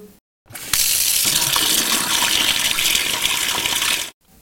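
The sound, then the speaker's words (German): Water gushes steadily from a tap for a few seconds, a loud, hissing stream that starts abruptly and cuts off sharply at the end. “Das ist nochmal der Wasserkran.”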